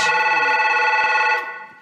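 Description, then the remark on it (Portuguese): A telephone rings with a bright, steady electronic trill, loud, sustained for over a second before fading out. No one speaks. “toque esse telefone aí”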